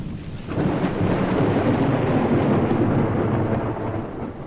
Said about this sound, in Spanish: Serían aproximadamente las seis y treinta de la tarde de aquel caluroso viernes, cuando inesperadamente se desató un fuerte aguacero,